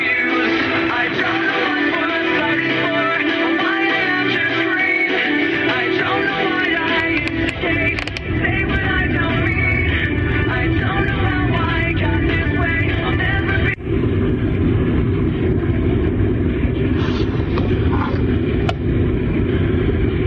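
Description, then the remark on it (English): A radio tuned across the band in a band scan, with dense, noisy broadcast audio and faint voices that jump abruptly to different stations a couple of times, including KJJY 92.5, staying loud and continuous throughout. “That was the worst band scan I've ever heard.”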